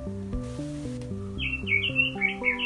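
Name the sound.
bird chirping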